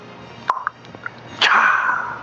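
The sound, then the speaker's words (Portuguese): A few small clicks and taps, then a sharp crack as a beer is opened, followed by a steady fizzing hiss that slowly fades, with no talking. “Eu vou abrir uma cerveja agora.”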